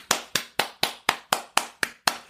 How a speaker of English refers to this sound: I want to give you a clap